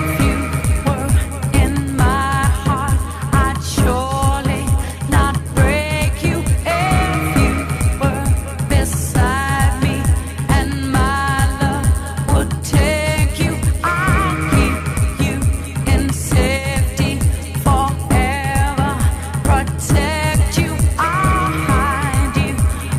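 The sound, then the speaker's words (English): A slowed-down house remix of a pop song, a radio edit, plays loudly and continuously, with a steady thumping four-on-the-floor beat under a sung vocal melody and layered synths. “So it was slowed down and it was turned into a house mm-hmm. track, mm really.”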